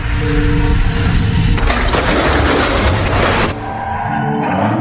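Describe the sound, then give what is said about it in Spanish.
A car traveling at 60 km/h on a road with a 50 km/h limit brakes hard with a tonal tire squeal, then slams into a car in a loud, sustained crash of smashing metal and shattering glass before the noise drops to a lower rumble. “En este punto se fracturó el cuello, luego de chocar con el carro.”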